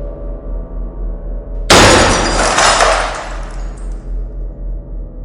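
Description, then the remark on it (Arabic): A sudden, loud shattering of the large glass pane of a door as people keep striking it, bursting at once into a bright spray of breaking glass that rattles and tinkles away over a second or two, over a steady low hum. “ما سمعوش للصوت ده وفضلوا يكسروا في الإزاز لحد ما الباب كله الإزاز اللي فيه انفجر زي القنبلة في وشهم”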